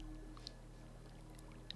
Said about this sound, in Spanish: hay agua de fondo, un manantial, un riachuelo.